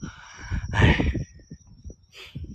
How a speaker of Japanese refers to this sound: あ、鈴虫が鳴いている。コオロギかなコオロギとスズムシの違いよくわからんけど。